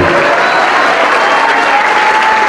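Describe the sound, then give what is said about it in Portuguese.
A large church audience claps steadily and loudly to the name of the Lord, a dense, sustained wash of applause, with a faint tonal hum running underneath and no clear speech. “Vamos aplaudir mais ao nome do Senhor.”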